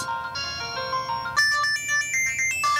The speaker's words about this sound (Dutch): Let's try the different ringtones.